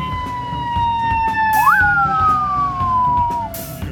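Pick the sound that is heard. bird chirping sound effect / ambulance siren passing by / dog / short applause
ambulance siren passing by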